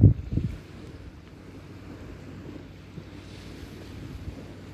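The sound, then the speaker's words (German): Steady rushing of sea waves with a broad, continuous wash of noise and some wind buffeting the microphone, a brief louder gust at the start, no voices. “Das Rauschen Me des Meeres ist wie, hüllt mich gerade ein wie Balsam, wie Balsam in meinen Ohren.”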